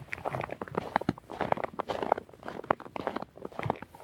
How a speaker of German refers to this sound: Ich hoffe, das hört man. Die Schuhe knirschen richtig im dicken Schnee.